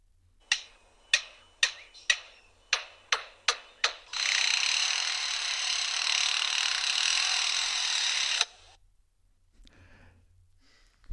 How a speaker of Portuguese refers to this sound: Imitação número 3. Imitações de instrumentos de uma obra.